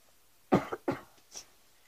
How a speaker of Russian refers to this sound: Извините, что кашлю. Просто охрип. Стараюсь говорить громче и насморк.